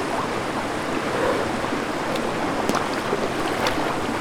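Steady rushing water in the dark waters of a grotto, with a couple of brief, sharp splashes breaking through near the end as a man dives in again.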